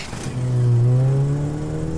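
A car engine revs up loudly, its pitch rising and holding as the vehicle pulls away, a steady motor drone with no voices.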